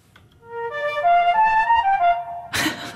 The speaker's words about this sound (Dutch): Wat dacht je van dit exemplaar? daar zit een melodie in. Ik zal je zelf zeggen welke melodie. Een arpeggio in b-mol. Want dat klinkt zo.